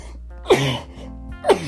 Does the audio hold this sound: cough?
yes